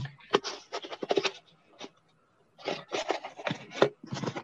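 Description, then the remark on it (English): Repeated scraping and rustling of packaging as a mug is tugged out of a box, in uneven bursts with a brief pause midway, moderately loud, with faint breathing. “What's in the box, you ask? Let's take a peek. Sounds like a hookup already. Hold on, it's hard to get out.”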